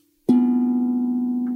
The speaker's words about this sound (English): I will use this tongue drum, and it will sound like this.